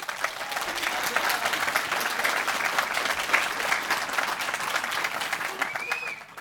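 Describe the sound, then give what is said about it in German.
An audience bursts into sustained applause, many hands clapping densely and evenly for several seconds at steady loudness before tapering off at the end. “Einmal in die Hände klatschen, wenn ihr Spaß habt.”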